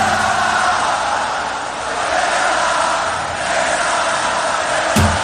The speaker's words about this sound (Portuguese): E aí a torcida grita, canta, canta o quê? Escute aí, canta que é festa na favela.